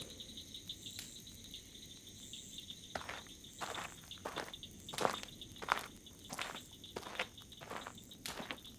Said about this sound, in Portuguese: Estou ouvindo passos. Será que é ela?